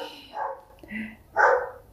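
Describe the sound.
A dog barks a few times in short bursts, the last bark loudest, in the background with faint murmuring voices around it, as someone stands at the door.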